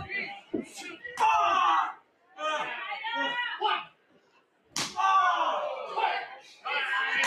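A sharp, loud slap to the face cracks out during a professional wrestling title match, followed by a roaring crowd, with a second smacking hit a few seconds later amid more excited yelling and cheering.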